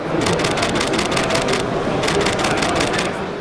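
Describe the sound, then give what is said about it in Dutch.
A Nikon mirrorless camera shutter fires in its high-speed 'Burst Mode High' setting, a fast even stream of crisp clicks, pausing briefly before a second burst. Fairly loud over steady background noise. “We gaan luisteren naar de Burst Mode High.”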